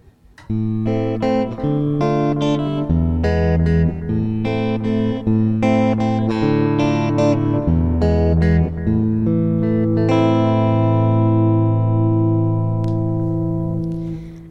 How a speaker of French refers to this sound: une petite chanson du 19e siècle qui s'appelle Lisandre